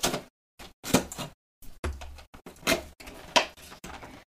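The plastic wrapper of a box of Halloween marshmallows crinkling as it is opened, a series of sharp, irregular crackling bursts with brief pauses between them, fairly loud and with no talking.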